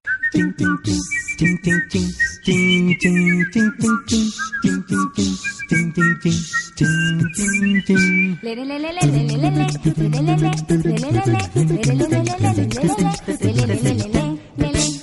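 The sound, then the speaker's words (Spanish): A band plays a lively, rhythmic medley, its bright, high lead melody sounding almost like whistling, with fuller instrumentation and sung-sounding lines after the midpoint. Loud throughout. “Por ahora vamos a escucharlos, por supuesto, a todos ellos en un mosaico.”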